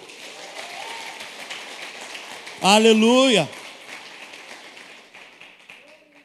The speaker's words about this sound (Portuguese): Aplauda o Senhor bem forte aí.